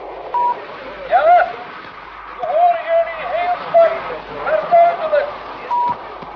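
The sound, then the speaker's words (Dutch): A faint, garbled voice crackles through a radio channel between Mission Control in Houston and an Apollo spacecraft over steady hiss, the speech smeared and hard to follow, with a short electronic beep at the start and end of the transmission. “We horen jullie heel zwak, maar heel onduidelijk.”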